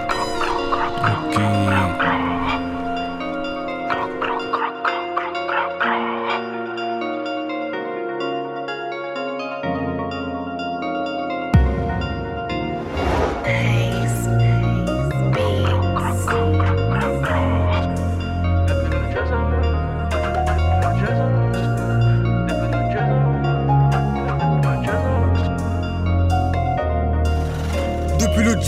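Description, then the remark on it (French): A rap song plays loudly, opening with a sparse melodic intro before a heavy, booming bass beat drops in partway through and drives steadily to the end. “Ce que je vous propose les amis, avant de découvrir le portrait de notre invité, je vous propose d'écouter un de ses titres.”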